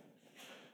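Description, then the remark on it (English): A single sneeze from an audience member in a crowd, a short breathy burst that is fairly faint against a soft background. “bless you”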